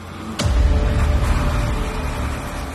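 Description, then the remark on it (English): A sharp onset gives way to a heavy, sustained low rumble of idling engines and road traffic: trucks waiting to get into the side of a port managed by Transnet, with trains standing idle. No voices present. “Around us, trains stand idle, but there's no shortage of trucks waiting to get in.”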